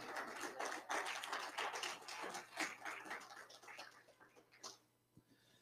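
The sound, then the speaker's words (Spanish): A crowd applauding together in praise of Christ, a dense wash of many overlapping claps that stays steady for several seconds, then thins out and fades near the end. “Dele ese aplauso fuerte a Cristo.”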